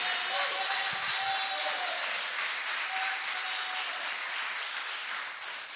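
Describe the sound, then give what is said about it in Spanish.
A crowd applauds steadily for several seconds, giving applause to the King, the risen Christ: a dense, crackling wash of many hands clapping at once, with a few faint voices calling out beneath it before it eases slightly at the end. “Dile un aplauso al Rey.”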